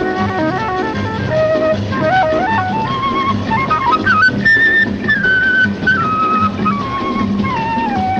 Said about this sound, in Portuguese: dessa música ali, eu acho muito interessante ah, o negócio da flauta, né? Que é bem aquela coisa Sim. de encantador, de, de, de, de serpente, né? encantamento.